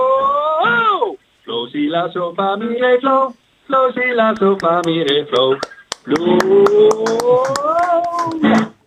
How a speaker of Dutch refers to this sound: Applaus.